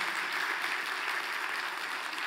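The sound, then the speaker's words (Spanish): A church audience claps for the Lord in sustained, dense applause that stays steady and fairly loud throughout, with no voices standing out above it. “Un fuerte aplauso por el Señor.”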